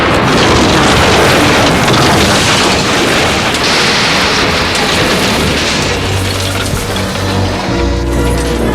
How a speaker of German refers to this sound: Das Flugzeug prallte auf. Es bebte, knirschte, krachte. Er machte noch einen Hopser, aber es hob nicht noch einmal ab. Dafür schoss es nun auf dem Boden dahin wie eine Kanonenkugel und rasierte Bäume und Büsche ab